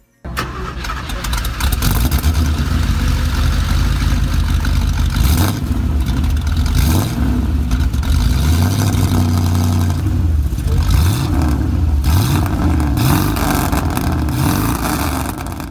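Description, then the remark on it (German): A powerful vintage racing car engine cranks and fires up, then roars loudly through repeated revs, pitch sweeping up and down in waves with a rough, throaty rumble. “Leider nicht vom Originalauto, aber so oder ziemlich ähnlich muss er damals geklungen haben.”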